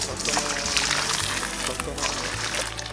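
Water is poured and sloshes steadily for a few seconds, brought for the Guru's bath: a bright, continuous splashing that stays fairly loud throughout, with faint low murmuring beneath it.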